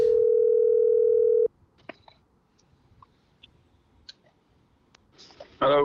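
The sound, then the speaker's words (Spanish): A loud, steady telephone ringback tone sounds for about a second and a half as a friend is being called, then faint clicks follow in near silence before a voice briefly answers at the end. “Vamos a llamar ahora a mi otro pana.”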